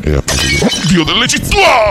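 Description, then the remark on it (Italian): A glass of wine falls and shatters in a sudden, bright crash with a brief spray of high tinkling fragments, heard beneath continuous speech that carries on over the breakage. “Scusate, ma mi è caduto il bicchiere di vino.”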